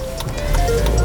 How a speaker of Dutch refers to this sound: Oh, dat is de telefoon.